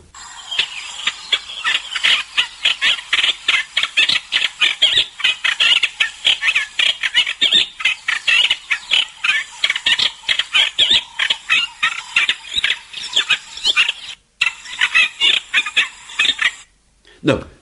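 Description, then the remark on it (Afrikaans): A garden warbler, a small European bird that migrates to Stellenbosch each European winter, sings a long, rapid, chattering song of scratchy notes and quick phrases, running almost unbroken, with a brief pause near the end. “Daar is 'n klein Europese voeltjie met die naam van die hofsanger wat elke Europese winter na Stellenbosch migreer en hy klink so.”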